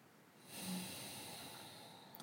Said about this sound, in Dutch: Inademend adem je in via je neus. En laat je adem tot in je onderbuik stromen. Tot precies die plek waar je handen je lichaam raken.